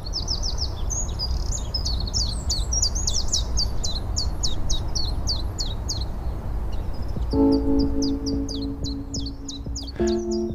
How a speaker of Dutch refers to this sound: Ik heb vanochtend mijn eerste Tjiftjaf gehoord. Daar werd ik heel vrolijk van. Een Tjiftjaf die zegt volgens mij ook gewoon Tjiftjaf.